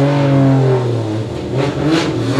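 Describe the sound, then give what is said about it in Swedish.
Race car engines revving loudly about 20 meters away at the pits of a racetrack, their strong harmonic drone sliding downward as the cars drive away, with bursts of higher whine layered on top. “Bara 20 meter från bilarna som Jaha. åker därifrån.”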